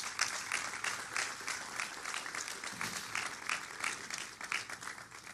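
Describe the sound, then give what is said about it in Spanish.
A crowd applauds steadily for several seconds as a loud round of applause for God, many hands clapping in a dense, continuous patter with no voices standing out. “¿Le puede dar un fuerte aplauso a Dios?”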